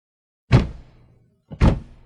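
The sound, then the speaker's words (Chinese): Soldiers in a banquet hall, on the order to stand to attention and salute, snap their rifles to their shoulders and stamp to attention: two loud, crisp thuds about a second apart, each a unified clatter that rings briefly before fading. No one speaks. “哗啦，一片整齐划一的收枪声、立正声传来，全体士兵敬礼，一动不动，展示了这支队伍的训练有素，能力超群。”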